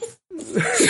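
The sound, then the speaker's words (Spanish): A single sneeze: a brief breath, a short pause, then a rising voiced build-up that bursts into a loud, hissy explosion of air. “Jesús.”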